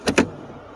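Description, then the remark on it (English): Inside an off-road vehicle driving to work after heavy snow: two quick rattling bursts, then a faint, steady low rumble carrying on, with no one speaking. “and and so I, uh, I ended up driving to work, and so that was the the noise you heard in the background.”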